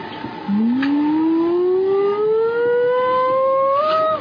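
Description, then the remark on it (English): A loud synthesized tone glides slowly upward in pitch for about four seconds, a smooth siren-like sweep over a faint hiss, with no voices. “but whatever it is, and then you hear a tone, which is, it could be reproduced on a synthesizer. It's that.”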